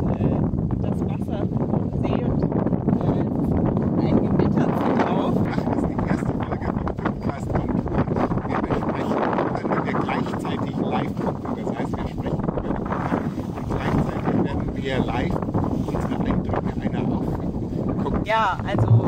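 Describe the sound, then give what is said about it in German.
Strong wind roars and buffets a microphone outdoors on the shore of Lake Constance (Bodensee), a steady, loud low rumble with gusty fluctuations that continues without pause for the whole stretch. “Vielleicht hört man neben dem Windrauschen auch noch ein bisschen.”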